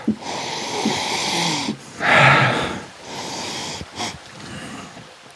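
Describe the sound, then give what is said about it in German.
Several breathy nasal sniffs, the strongest a sharp hissing inhale around the middle, with short softer snorts before and after; no talking, just the airy rush of someone sniffing Riesling wine in a glass during a tasting. “Er riecht.”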